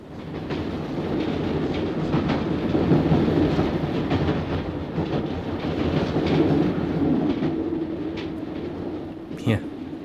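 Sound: train rolling along rails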